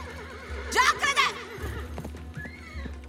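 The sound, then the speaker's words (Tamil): A horse lets out a loud, wavering whinny in two bursts, followed by scattered clip-clopping hoofbeats with low rumbling underneath, as a rider mounts it and rides off from a village. “அப்படின்னு சொல்லிட்டு குதிரை மேல ஜான்சி ராணி மாதிரி ஏறி புறப்பட்டு போனான்”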